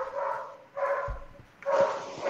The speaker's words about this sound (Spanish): ¿Es Kane la que está llorando? ¿La que está ladrando? Creo que sí.